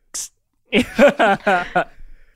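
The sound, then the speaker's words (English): A voice imitates a can opening with one short, sharp hissing burst, followed after a brief pause by several quick voiced vocal sounds, fairly loud. “The sound of the can opening is like.”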